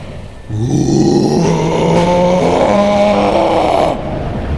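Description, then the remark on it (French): A single powerful roaring howl, loud, held for about three and a half seconds with a harsh, rich tone and shifting pitch before it cuts off abruptly. “Son hurlement est tellement puissant qu'il renverserait l'orque.”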